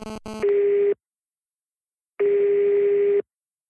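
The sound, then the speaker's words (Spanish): Telephone tones: a quick burst of dialing beeps, then two long steady tones separated by silence, as a call rings out before voicemail picks up. Clear, no voices. “Buzón de voz. La llamada se cobrará al terminar los tonos siguientes.”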